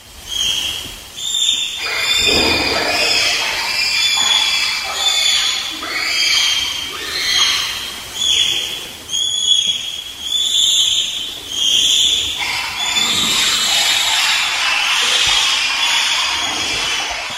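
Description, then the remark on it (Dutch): A chorus of shrill, high-pitched bonobo calls overlapping almost continuously, with excited hoots and squeals rising and falling in quick bursts, loud throughout with no talking. “Het zijn bonobo's die we horen.”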